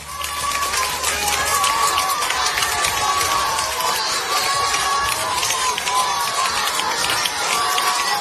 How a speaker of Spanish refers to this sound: Eran los aplausos que los alumnos del Colegio Juan Pablo II de Puerto Real en Cádiz le dedicaban